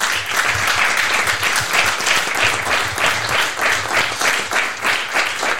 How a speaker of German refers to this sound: Und ich würde sagen, einen herzlichen Applaus für den Host des heutigen Abends,